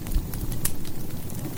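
A big piece of firewood thuds onto a burning fire as more wood is added, followed by a steady, busy crackle with a sharp snap partway through. No voices are heard.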